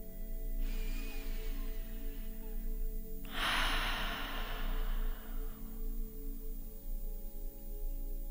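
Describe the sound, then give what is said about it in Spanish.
A slow breath drawn in through the nose, with a soft faint start and a louder airy rush midway that fades gradually, over a steady low hum and no talking. “Mueve tu atención de un sonido al otro y llega poco a poco al sonido interno al sonido interior de tu propia respiración por la nariz.”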